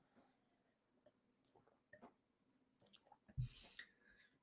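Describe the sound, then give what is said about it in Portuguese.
Quiet drinking noises as someone takes a long drink of water: a run of small wet squishes and swallows, ending in a louder gulp and exhale near the end, with no one talking. “eu vou dar um gole longo de água aqui”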